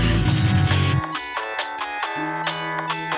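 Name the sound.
phone ringing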